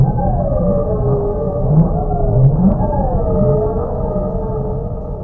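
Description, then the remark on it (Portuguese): A strong, steady whoosh of gusting wind with low rumble and wavering, howling tones that rise and fall, loud and sustained for several seconds with no voices; the startup sound of a video game cartridge as the Squaresoft logo shows on a black screen. “O, pra quem não jogou, quando você liga e dá o logo da Squaresoft na, na tela preta, ele faz tipo um som de sopro de vento bem forte.”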